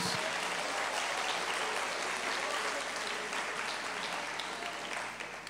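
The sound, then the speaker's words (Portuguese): An audience claps for Jesus in worship, a dense, continuous wash of applause that holds at a strong level for several seconds before easing slightly at the end. “Pode aplaudir a Jesus, adore a Jesus.”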